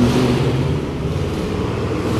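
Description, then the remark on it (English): The powerful engine of a fancy, speedy sports car starts as the driver gets in, then roars and revs with a deep, steady rumble, easing off slightly as it drives away. No one speaks over it. “So if I had a kind of car like that, he has like one of those speedy fucking cars, this fucking guy.”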